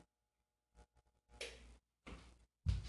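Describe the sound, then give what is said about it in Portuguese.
The broken wall switch for a ceiling fan in a bedroom is flipped several times: faint clicks at first, then a few louder, rattling clacks in quick succession, with no one talking. “Eu tenho uma tomada e um interruptor de lâmpada e um interruptor de ventilador. O interruptor de ventilador não funciona. Eu, eu vou ligar aqui e vou fazer assim.”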